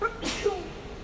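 A single sharp sneeze bursts out, a brief breathy explosion followed by a short fading tail.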